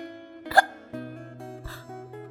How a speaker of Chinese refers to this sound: 这下子，老狼可发愁了，他也不知道怎么能治好打嗝。